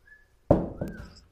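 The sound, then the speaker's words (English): A sharp, fairly loud clatter as a phone hits a hard surface, followed by a smaller bounce a moment later. A faint thin tone lingers before and after the impact. “You know, stop dropping your phone.”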